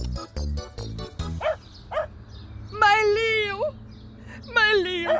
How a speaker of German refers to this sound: Ai, Gott sei Dank, ja, Leo, mein braves Hundi. Gut, dass ich dem Tier sofort den Magen ausgepumpt habe.